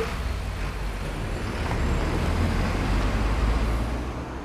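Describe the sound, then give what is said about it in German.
Steady road traffic rumble with low engine drone and tire noise, swelling slightly as a vehicle passes midway, then easing off; no voices. “als es dann anfing mit den E-Autos und Autos plötzlich keine Geräusche machen, hat man gemerkt, wie wichtig eigentlich das Hören ist für die Wahrnehmung des Verkehrs.”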